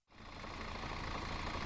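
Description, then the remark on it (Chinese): A bus engine idles with a steady, low rumbling drone and faint rattling texture, starting abruptly and holding an even level throughout, with no voices. “我买了一张车票，坐上了大巴车。”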